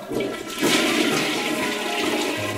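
A toilet flushes loudly, a steady rushing swirl of water that surges after a brief start and keeps roaring for a couple of seconds, with no voices.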